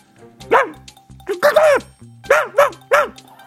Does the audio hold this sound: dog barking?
yes